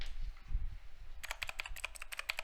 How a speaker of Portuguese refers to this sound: O que, que você tá teclando, fazendo esse barulho, ó? Por quê? Chega, mano. Chega desse barulho.